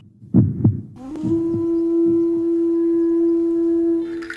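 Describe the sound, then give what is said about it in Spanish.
Deep, muffled heartbeat thumps pulse loud, first a quick double beat, then softer beats beneath a steady electronic hum that holds to the end. “Tayari emite latidos, pulsaciones que se escuchan cual grito de resistencia.”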